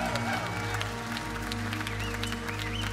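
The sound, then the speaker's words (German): A large crowd at a church event at the Parkschenke in Limba applauds steadily for Online Church Hagenow, a dense wash of clapping that fills the space, with scattered cheers and a couple of rising whistles riding over it. “Können wir nochmal einen riesen Applaus geben?”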